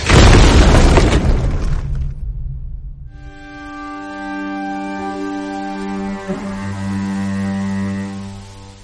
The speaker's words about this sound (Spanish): Initiating drone strike.